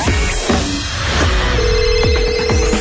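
A telephone rings as a listener from Bârlad calls in to the radio show, a steady electronic tone holding through the second half, over a dense, busy wash of background sound with no one speaking.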